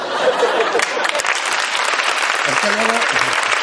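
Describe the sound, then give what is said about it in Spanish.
An audience claps steadily for a few seconds, a dense, even patter of many hands at constant loudness, with brief voiced murmurs rising under the applause toward the end. “No aplaudáis que sepa inglés, coño, que es que no tiene mérito.”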